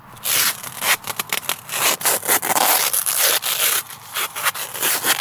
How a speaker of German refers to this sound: Zeckenschutz. Ja, also. Klebeband gerade fünfmal ums Bein gewickelt.